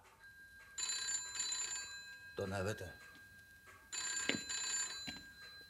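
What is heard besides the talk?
telephone bell ringing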